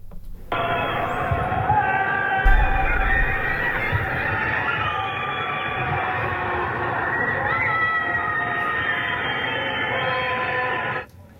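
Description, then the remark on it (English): A dense, continuous chorus of many voices, people locked in their homes at night in Shanghai, starving and screaming and wailing for help at once, overlapping into a steady echoing din for about ten seconds, with no single voice standing out. “That is the sound of over 25 million people locked in their homes and starving and screaming for help.”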